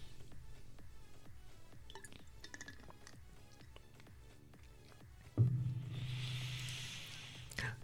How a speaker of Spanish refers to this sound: Voy a, Permiso, un, permiso. Voy a tomar un poquito de agua.